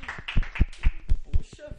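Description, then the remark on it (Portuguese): A single person claps about seven times in a quick, steady rhythm, fairly loud, while someone talks over the claps. “Eu vou bater uma sala de palmas pra vocês, porque olha, realmente.”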